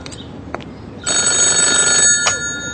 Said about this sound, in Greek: Τηλεφώνημα για σένα